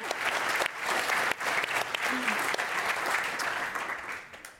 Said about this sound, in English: Let's give them a round of applause for getting through the lightning round.